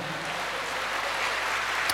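An audience applauds for God during a sermon, with steady, dense clapping, a loud continuous patter of many hands that holds evenly for the whole stretch, with no voices heard over it.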